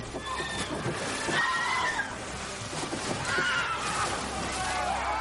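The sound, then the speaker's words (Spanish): A horse whinnies in several shrill, wavering cries over a dense wash of sloshing, churning water as it falls with its rider into a river when a bridge collapses, the commotion steady for the whole stretch. “El suelo bajo se Roland se hunde y cae al agua con su caballo.”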